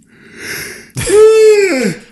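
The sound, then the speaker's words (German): A loud, drawn-out yawn: a breathy intake, then a long voiced groan that sweeps downward and trails off. No words are spoken. “Du weißt ganz genau, wie ein Audioformat funktioniert, indem man Hörern ins Ohr gähnt, laut, mit lauten, nervigen Geräuschen.”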